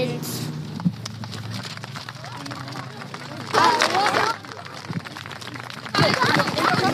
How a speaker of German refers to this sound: Voller Applaus, das haben die Kinder super gemacht. Vielen Dank für das.